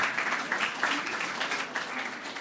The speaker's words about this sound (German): Das ist ein Applaus wert, gell? Jawohl.